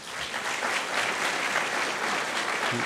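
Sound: audience applause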